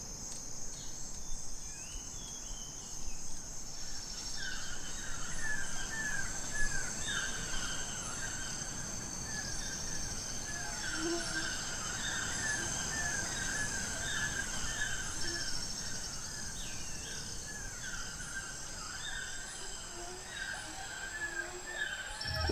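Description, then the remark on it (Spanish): Outdoor field recording of wild birds from the Pacific, made during bird-watching fieldwork, full of a steady, high insect drone, with scattered chirping bird calls repeating in short bursts throughout and occasional faint caws over a soft rustling background. “a través de algunos de sus sonidos, mientras que Sara nos cuenta qué aves observó durante su trabajo de campo.”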